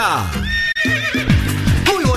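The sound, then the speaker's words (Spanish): A horse neighs loudly, a shrill, quavering whinny that drops and wavers in pitch, broken by a brief gap before trailing off into lower, shaky calls. “Con las orejitas del caballo ….”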